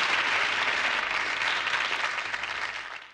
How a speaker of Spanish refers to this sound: Sí, vamos a aplaudir por ello.